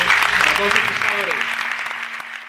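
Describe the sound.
An audience at a gala claps in a steady, dense burst dedicated to the fishermen and fisherwomen of Spain, holding loud for about two seconds before starting to fade, with a few voices faintly audible underneath.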